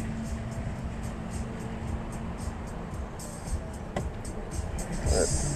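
A car rolls in slowly to park as Zebb pulls in trying to find a parking spot, its engine a steady low rumble, with a sharp click near the end and a slight swell in noise.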